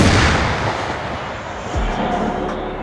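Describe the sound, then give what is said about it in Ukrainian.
A 2S1 Gvozdika self-propelled howitzer fires a shell at close range: a loud, dense roar of blast and rumble fills the moment, with another deep low thud near the end. No one speaks. “Так зблизька звучить гвоздика.”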